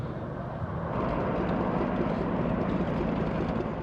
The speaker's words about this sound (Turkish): Helikopterler, akrobasi uçakları gökyüzünde muhteşem gösterilere imza attı. Eskişehir'de düzenlenen Sivrihisar Hava Gösterileri bu yılda izleyenlere büyük heyecan yaşattı.